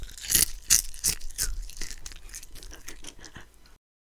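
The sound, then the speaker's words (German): Crisp, crackly crunching of puffed rice being chewed for ASMR, with a burst of loud bites at the start that fades into softer, rapid crackles before stopping abruptly. “Als zweites hatten wir Puffreis. Der hat sich auch sehr gut für das ASMR geeignet, finde ich.”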